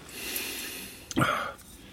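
A single sharp, deep sniff through the nose, inhaling the aroma of a white wine, fairly loud, lasting under half a second against a soft background hiss. No one speaks.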